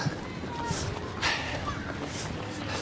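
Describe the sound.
The footsteps of two women runners pass by: a few soft, spaced thuds against a steady outdoor background hiss, with faint voices murmuring underneath.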